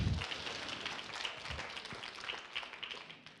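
A crowd applauds steadily for a few seconds, a dense crackle of many hands clapping at once with a few sharper individual claps standing out. No one speaks.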